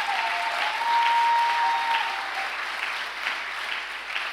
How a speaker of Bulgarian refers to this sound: О, хайде, ако ръкопляскаш, ръкопляскай, като че наистина вярваш.